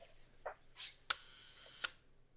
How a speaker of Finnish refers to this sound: Mutta tässä rupesi miettimään, että me voidaan tarjota pelkän verhosulkimen ääntä